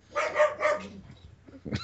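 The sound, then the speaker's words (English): A person's voice mimics a dog, giving two quick, bark-like yaps, followed by a softer breathy sound and a brief vocal noise at the end. “Nice, nice dog imitation.”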